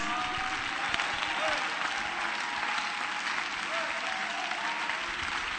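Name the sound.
audience clapping hands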